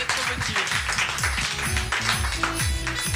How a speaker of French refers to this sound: on peut l'applaudir. Allez, on la soutient.